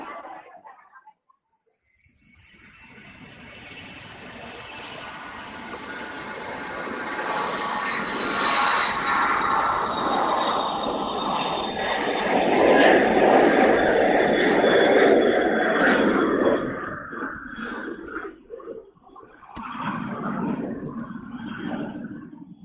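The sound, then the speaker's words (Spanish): A jet airplane engine on a flight departing for Houston, Texas roars up from a brief silence, swelling into a loud, sustained whine and rumble with a high steady tone on top, as if heard from inside the cabin. “Atención, por favor, los usuarios del asiento número 27 y 28 son los únicos de todo el avión que no se han puesto el cinturón de seguridad.”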